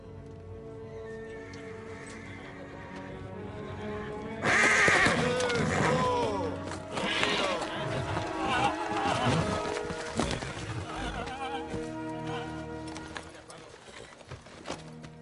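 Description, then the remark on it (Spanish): After a few quiet seconds, restless horses erupt in loud, shrill neighs and whinnies while hooves clop and shuffle irregularly beneath them, the commotion gradually easing toward the end. “Los caballos se inquietan.”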